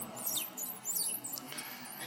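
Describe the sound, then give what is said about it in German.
Repeated high-pitched squeaks and chirps from a squeaky baby stroller being pushed past come in irregular bursts over a soft background hum, fairly quiet throughout. “Wir sind etwas irritiert von dem quietschenden Kinderwagen, der gerade vorbeigeschoben wurde.”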